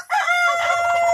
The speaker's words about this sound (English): There's a rooster. Did you guess correct? Did you guess what they were?